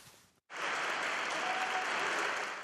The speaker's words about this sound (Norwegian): Til hyllende applaus fra ansatte og demonstranter ble Ekrem Dumanli, redaktør i Tyrkias største avis, Saman, ført ut gjennom redaksjonslokalene av politiet i går formiddag.